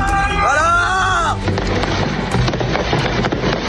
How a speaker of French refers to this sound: À Vénissieux, près de Lyon, Pluie de tirs, de mortiers.